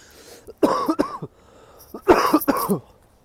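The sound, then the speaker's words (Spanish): Two short bursts of harsh, dry coughing from a person whose throat is dry after eating nuts, each a quick cluster of raspy hacks separated by a brief pause, with no speech. “Jope máquinas, disculparme, ¿eh? que he comido frutos secos y tengo la garganta un poco seca.”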